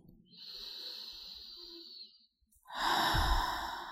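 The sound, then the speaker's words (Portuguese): A long, slow breath drawn in, a brief pause, then a stronger, louder breath pushed out, airy with no talking. “Experimenta dar algumas respirações profundas você também.”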